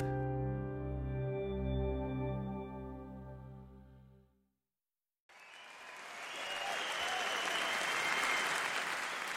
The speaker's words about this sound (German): Mit Applaus beginnt diese CD, dem Jubel des Publikums in einer großen, offenbar ausverkauften Konzerthalle. Und das zeigt schon, ein alltägliches Jazzkonzert war das damals nicht.